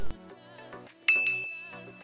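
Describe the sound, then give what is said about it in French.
A single bright notification bell ding sound effect strikes about halfway through, a sharp metallic chime whose clear ringing tone lingers and fades over the final second. “si tu aimes ce genre de contenu, assure-toi de cliquer sur le bouton j'aime, puis sur s'abonner en n'oubliant pas d'activer la petite cloche pour rester au courant de mes prochaines sorties vidéo.”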